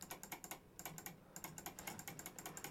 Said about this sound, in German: Ja, man hört's deutlich. Was wettklicken? man hört es deutlich, hier ist was los. Hier wird wettgeklickt.